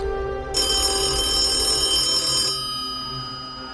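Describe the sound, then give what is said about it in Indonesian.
A telephone rings with a single loud, sustained bell burst lasting about two seconds, then cuts off, leaving a faint tonal hum behind. No one speaks. “Telepon itu berasal dari Interpol di Saint Cloud, dekat Paris.”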